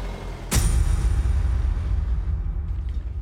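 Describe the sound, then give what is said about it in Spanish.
A car with a siren mounted on its roof starts with a sudden burst of its engine, then settles into a steady low rumble that carries on as the car drives off back to the station, slowly easing in volume. “Arranque el auto y nos vamos de vuelta a la estación.”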